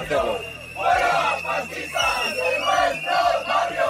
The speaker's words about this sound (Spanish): Pues los manifestantes aguantaron casi 10 minutos gritando contra Javier Ortega Smith de Vox.